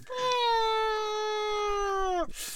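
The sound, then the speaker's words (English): A small child's voice imitates an airplane flying overhead with one steady, high-pitched drone lasting about two seconds. It is loud, sags slightly in pitch, then cuts off abruptly. “What is that? Fly fly? Airplane, yeah.”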